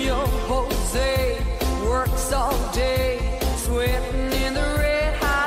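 An upbeat country-style song with a woman singing a bright, wavering melody over steady drums and twangy, plucked instrumentation, played continuously at a fairly loud level.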